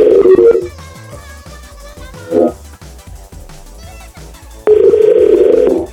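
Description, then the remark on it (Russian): Loud, warbling telephone ringing tones heard while calling, in three uneven bursts: a short one, a brief blip, then a longer trill, over a faint rhythmic background. “Такие истерические гудки.”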